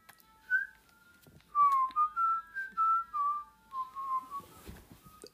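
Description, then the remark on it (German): Video game background music plays on its own as the game's scene suddenly moves to an ordinary apartment: a gentle, whistle-like melody of short sustained notes drifting up and down at moderate volume, with no one talking. “Wir sind auf einmal in einer Wohnung. Ihr hört die Musik.”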